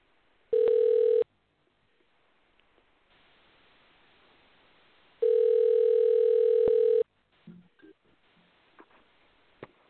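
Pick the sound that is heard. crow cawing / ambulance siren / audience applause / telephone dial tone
telephone dial tone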